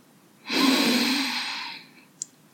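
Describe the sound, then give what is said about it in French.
A single long, deep breath, airy, swelling quickly and then slowly trailing off as it is let out, with no talking. “Prenez une grande inspiration.”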